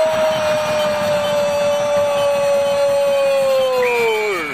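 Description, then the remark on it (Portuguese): A referee's whistle sounds one long, loud, steady blast that holds its pitch for about four seconds, then sags downward as it ends, with a murmuring crowd underneath. “Apito árbitro!”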